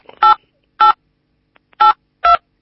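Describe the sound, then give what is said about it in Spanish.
Four short electronic keypad beeps from phone buttons being pressed, each a brief clear tone separated by uneven pauses, fairly loud with no voices. “porque estás apretando alguna tecla y nos hacen unos ruidos.”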